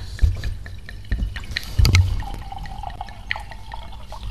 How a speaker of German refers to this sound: Kurzer Stille-Moment, während ich mein Weinglas fülle